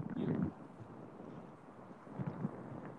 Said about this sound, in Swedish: För jag, fan vad det blåser! Din jävla idiot. Nu är jag i blåshålet.